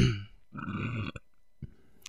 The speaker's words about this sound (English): I burp into the mic because I'm cool.